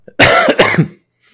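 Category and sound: human body sound, cough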